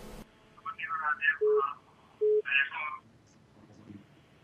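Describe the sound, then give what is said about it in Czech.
A telephone line rings twice in short, steady tone bursts, mixed with warbling electronic tones, moderately loud, as a second caller is put through to a live broadcast, then fades to quiet line hiss. “A hned druhý telefon.”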